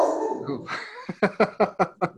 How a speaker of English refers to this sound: That's your dog saying good too, huh?